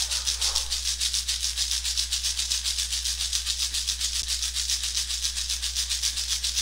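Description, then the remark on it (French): A shamanic rattle shaken in a steady, quick rhythm of about four hissing shakes per second, bright and continuous, with a faint low hum beneath and no voices. “Laissez le son et le travail du Haché chamanique libérer tous les parasites qui auraient pu se présenter dans votre sein.”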